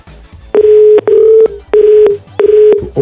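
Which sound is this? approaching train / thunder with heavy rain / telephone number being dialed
telephone number being dialed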